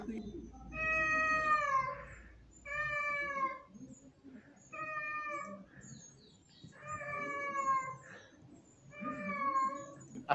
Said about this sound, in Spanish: así como ustedes están escuchando, eh, grita el gato. Pero lo, cómico es que va, se para al lado de la ventana, se pega su grito, y así como llegó, se da media vuelta y se va.